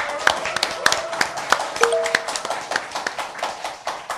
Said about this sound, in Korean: 국민TV 시사토크 만마이스 여러분의 힘찬 환호와 박수와 함께 시작하겠습니다.